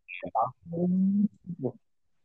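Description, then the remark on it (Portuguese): Several cats fighting and yowling outside in a street: a few short wailing cries around one long, drawn-out moan, fairly faint, with no talking over them. “nossa, velho, tem uns gatos brigando aqui.”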